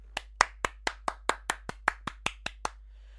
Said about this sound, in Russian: Все, хватит хлопков.